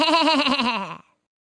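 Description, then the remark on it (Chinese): A single sheep-like bleat from a duck on a farm's wet marshland, loud and tremulous, wavering for about a second before cutting off into silence, with no talking. “在农场湿漉漉的沼泽地上，这只不幸的鸭子咩咩的叫， 咩咩。”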